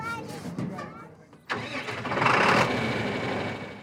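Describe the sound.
After a moment of muffled voices, a tractor engine abruptly cranks to life about midway, revs up loudly, then settles into a steady, close rumbling idle.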